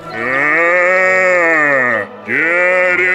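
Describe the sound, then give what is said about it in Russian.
A person telling the Russian folk tale Teremok imitates the clubfooted bear roaring with all its might: a loud, drawn-out, low bellowing voice that sinks in pitch, breaks off briefly, then rises again in a second, shorter roar. “Вдруг идет медведь косолапый Увидел медведь теремок, услыхал песни, остановился и заревел во всю мощь.”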